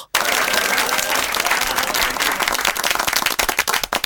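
An audience breaks into loud, dense applause that starts abruptly and continues steadily for about four seconds, many hands clapping in a crackling, overlapping wash with no voices on top.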